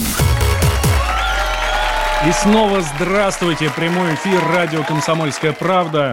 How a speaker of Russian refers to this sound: Да, спасибо за аплодисменты.